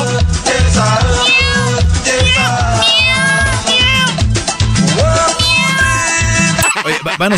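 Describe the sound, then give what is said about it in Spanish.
Repeated cat meows, loud and upfront, sound in quick succession over a thumping, steady bass beat, like a cat sound effect layered into music for the whole stretch. “Todos sabemos quién son las gatas.”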